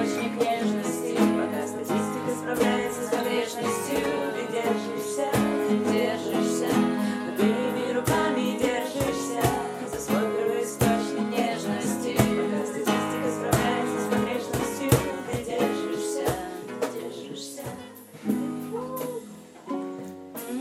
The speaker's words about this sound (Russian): слушайте Там музыку. квартирник в соседней комнате.